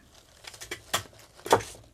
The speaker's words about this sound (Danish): Det er fordi, vi også har fået en klipsmaskine. Og så vil jeg bare se, om den virkede.